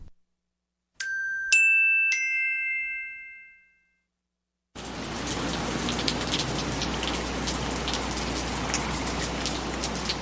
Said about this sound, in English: It started to rain.